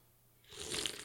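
A gory stabbing sound effect from the film Friday the Thirteenth, of Kevin Bacon being stabbed in the throat: after a brief moment of quiet, a sudden loud, wet crunch and tearing burst, lasting well under a second with no voices.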